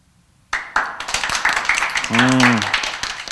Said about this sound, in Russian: Рад за вас. Аплодировать у вас есть силы.